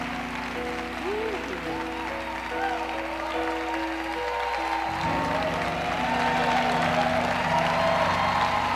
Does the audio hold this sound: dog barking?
no